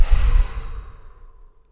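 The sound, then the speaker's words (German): A long, deep exhale released after a deep breath held briefly during a guided breathing exercise, starting as a strong breathy rush and gradually fading out over about a second and a half. Alone, with no talking. “Und ausatmen.”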